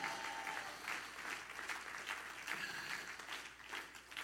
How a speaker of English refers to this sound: Everybody clap your hands and shout, Yes!